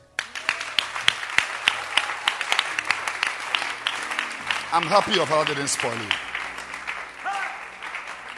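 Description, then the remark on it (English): A church crowd claps steadily, dense overlapping hand claps that keep a loud, even patter throughout, with a man's voice speaking over the applause midway. “Clap your hands for her.”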